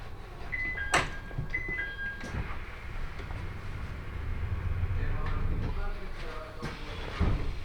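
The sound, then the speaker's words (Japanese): A local Tohoku Main Line train bound for Sendai idles at a platform at Fukushima station before its 15:43 departure, with a steady low rumble, a few short electronic beeping tones early on, and occasional clunks, with muffled voices in the background. “福島3時43分発東北本線下り普通列車仙台行きまもなく発車いたしまするドアにご注意ください”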